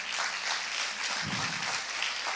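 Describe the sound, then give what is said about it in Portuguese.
A church audience applauds for its team and pastors going to serve in Sarasota: dense, steady clapping from many hands forms a continuous crackling wash that holds at an even, moderately loud level for the whole couple of seconds, with no voice standing out. “Vamos aplaudir Jesus pela vida deles nessa hora?”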